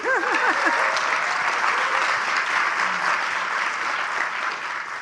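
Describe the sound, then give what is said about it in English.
An audience at a C21 keynote session claps steadily for about five seconds, a dense, even wash of many hands at constant loudness, with a few short rising whistle-like tones at the very start, welcoming Universal Studio Group chairman Igbokwe. “First, everyone give a, a warm round oh. of applause to uh, Igbokwe, please.”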